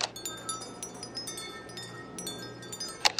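A bell rings on a cassette recording, with rapid, repeated metallic strikes whose bright tones linger and overlap, sounding fairly quiet and steady over a low background hum, with a sharper hit near the end.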